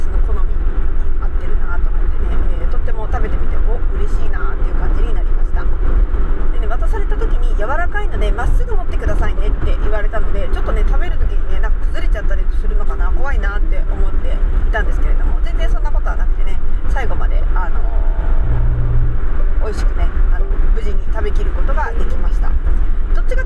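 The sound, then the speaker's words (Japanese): Steady low road rumble fills a moving car's cabin in Hokkaido, with the outside temperature at 33 degrees, a constant engine-and-tyre drone with a voice talking over it the whole time. “ただね今ね、えーと、車を走らせてこの車の、ね、中の温度計を見るとね外が33度もあるんですよねだから、ね、北海道で33度もあるって”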